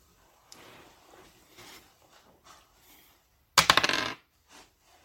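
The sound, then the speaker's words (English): Polyhedral dice for a d100 roll clatter across a tabletop in a sharp burst of rapid clicks that settle within about half a second, with a few soft taps and small handling noises before and after. “Um, do you want to roll me a d100? See what comes up.”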